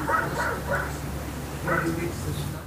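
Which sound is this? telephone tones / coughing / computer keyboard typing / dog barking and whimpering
dog barking and whimpering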